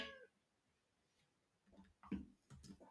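A short, high meow from a cat in a video game at the very start, followed by quieter clicks and soft thumps with no talking.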